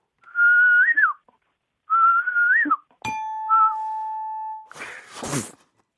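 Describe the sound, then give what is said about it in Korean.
Two rising-and-falling whistled notes imitate the cuckoo chime of a Daejeon subway station, followed by a sharp click, a long steady tone, and a brief breathy burst. Fairly loud, with no talking. “예, 뻐꾸기 소리예요.”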